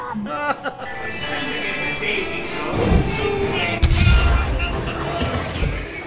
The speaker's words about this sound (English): Man, those cannons sound realistic today. Oh, that one seemed to hit the boat.